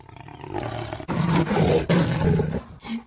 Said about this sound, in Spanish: Sí, sí, ya escuché nuevamente a nuestro amigo Jaguar.